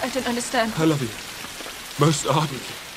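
Steady rain patters as a continuous hiss over English fields, with two short bursts of voices arguing over it, in a scene from the 2005 film Pride and Prejudice.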